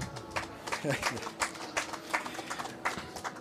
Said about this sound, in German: Zu Recht der Applaus.